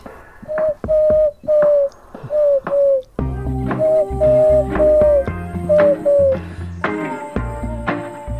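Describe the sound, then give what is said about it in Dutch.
A wood pigeon's five-note cooing phrase sounds clearly on its own, then repeats over a full musical backing with a steady bass, the soft hooting notes riding on top. “De houtduif doet altijd vijf tonen.”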